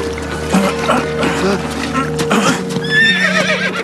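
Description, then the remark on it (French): A white horse whinnies with a wavering, quavering call near the end, over steady clip-clopping hooves, while people talk over a constant low background hum. “Je sais pas trop, c'est quoi? ça? un cheval blanc.”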